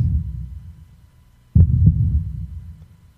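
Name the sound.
heartbeat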